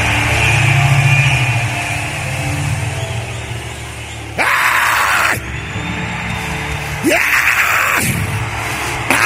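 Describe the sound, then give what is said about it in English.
A large crowd screams and shouts together in fervent prayer, a dense roar of many voices with two louder surges of yelling rising over the sustained clamor. “Come on, scream like your voice is yours. Pray.”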